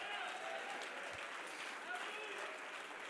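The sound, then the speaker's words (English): A large crowd claps steadily and loudly throughout, a dense wash of applause with scattered shouts and cheering voices mixed in, sounding full. “Come on, jump to your feet and clap your hands and shout, I ah, declare it.”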